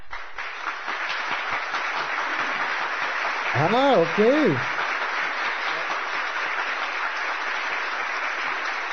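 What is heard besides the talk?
applause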